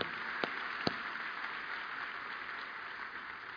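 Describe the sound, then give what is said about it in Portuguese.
A church audience claps for the Lord in a steady, dense wash of applause, with a couple of sharper individual claps popping out early on; no one speaks. “Pode aplaudir o Senhor.”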